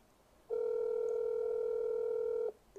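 One steady electronic ringing tone from an outgoing phone call that goes unanswered, a single two-second burst heard clearly and fairly loud, with faint quiet before and after and no talking.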